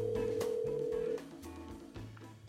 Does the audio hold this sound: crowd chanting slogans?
no